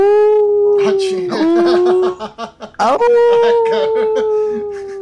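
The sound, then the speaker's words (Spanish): Several voices howl together in long, sustained wavering tones like a wolf pack, with laughter breaking in midway before the loud howling resumes. “Puro jauría de lobos ahí. sí, ahorita hay puro lobo.”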